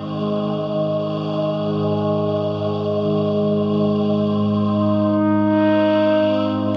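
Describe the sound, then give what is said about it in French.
A sustained synthesizer tone from an Osmose MIDI MPE keyboard, sensitive to pressure, vibration and 3D movement, rings out alone, thick with layered harmonics and a wash of reverb, holding steady and fairly loud, its timbre shifting slightly near the end. “ou des sons de synthèse aux possibilités infinies.”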